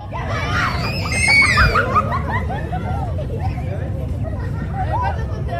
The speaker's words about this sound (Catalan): amb aquest altre so, al d'un parc infantil al barri de Sants a la mateixa hora.